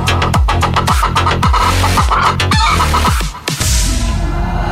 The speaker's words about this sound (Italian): Nel frattempo, i ragazzi della banda ne approfittano per sculacciare la gallina in studio.